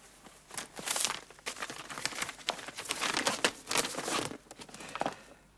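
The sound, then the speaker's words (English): Crisp, continuous crinkling and rustling of a paper underground (tube) map being unfolded and handled, with irregular bursts of crackle over several seconds and no voices. “Can you show us on the underground map? Yes, of course.”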